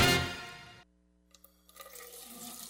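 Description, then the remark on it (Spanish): A loud burst of rushing water, like a flush or a gushing tap, cuts off abruptly after under a second, leaving quieter scattered drips and gurgles. No one speaks. “Miles de dominicanos desperdician el agua de manera irresponsable, sin entender el impacto que causaría en nuestras vidas si desaparece.”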